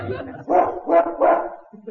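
A dog, one of a doctor's patients, gives three loud, mid-pitched barks in quick, even succession, each one short and rough, with a quieter murmur before and after.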